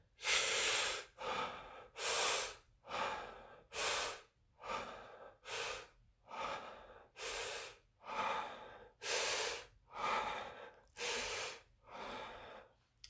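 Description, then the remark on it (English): Continuous circular breathing demonstrated: about a dozen loud, rhythmic breaths, each deep inhale flowing straight into the exhale with no pause, steady and even throughout, no talking. “you're starting to turn it around and breathe out”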